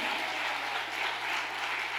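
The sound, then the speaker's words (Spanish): Sustained, loud applause from a large crowd during a sermon, a dense wash of many hands clapping steadily throughout with no pauses, with no talking. “¿Cuánto le dan el aplauso fuerte?”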